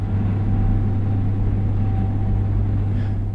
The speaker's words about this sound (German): Oder sehr beliebt auch der Kühlschrank. Ne? Der brummt so ein bisschen im Hintergrund.